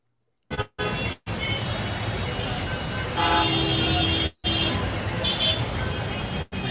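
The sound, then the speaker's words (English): Car horns honk over a dense wash of traffic noise, with one long, loud blast standing out midway. The sound cuts out abruptly a few times. “come on. Move! Freaking traffic.”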